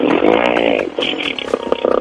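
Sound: voice imitating a motorcycle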